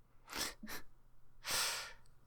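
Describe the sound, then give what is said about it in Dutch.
Someone yawns: two short, breathy intakes of air followed by a longer, airy exhale, fairly loud against a quiet background with no talking. “Gaap.”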